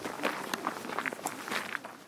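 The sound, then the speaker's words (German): Footsteps of a man walking a few steps around his house at a steady, unhurried pace, each step a crisp scuff on a hard, gritty surface, about six or seven steps over two seconds with no voices. “geht John Rubin Bura ein paar Schritte um sein Haus herum”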